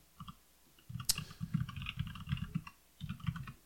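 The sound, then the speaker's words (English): Steady clatter of keys being typed on a computer keyboard, quick irregular taps running in bursts with a brief pause, one sharper click standing out near the start. “You're typing. What are you typing?”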